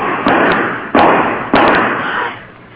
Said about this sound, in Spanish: Esos disparos fueron en la calle. Lo van persiguiendo.